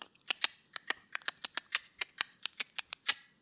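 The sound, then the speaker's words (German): A quick series of about fifteen light, sharp knocks on a room door, slightly uneven in rhythm, crisp with no one talking. “Das ist das Klopfen an die Zimmertür.”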